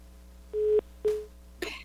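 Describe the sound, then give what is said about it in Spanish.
A listener's phone call to a radio program drops: two short, steady electronic beeps in a row, clear and fairly loud, followed by a brief burst of crackly noise as the connection cuts off. “Ya se nos descomunicó con Domingo”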